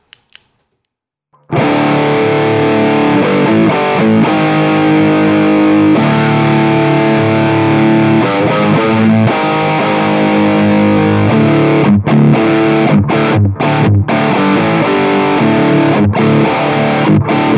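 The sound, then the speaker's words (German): A heavily distorted electric guitar, played through a distortion pedal with the gain turned up, plays dense, sustained chords after a couple of brief clicks, loud, with a thick, fuzzy buzz and a few short choppy breaks near the end. “Äh, das Ding verzerrt, ja, aber ich weiß nicht, was man mit so einer Zerre anfangen soll.”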